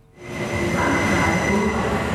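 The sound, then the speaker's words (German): The new copper-coloured Traverso passenger train of the Schweizerische Südostbahn (SOB) rolls unusually quietly into St. Gallen station, Switzerland, with a steady, low rumble and faint high tonal whine, rising in after a brief quiet moment and staying fairly subdued, with no voices. “Außergewöhnlich leislich fährt der neue Traverso St. Gallen ein.”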